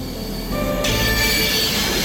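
A passenger train carrying several hundred people rumbles steadily along the rails from Oslo toward Åndalsnes on the Dovre Line in Norway in February 1975, its low rolling roar joined by thin, high metallic wheel squeals that brighten and grow louder partway through.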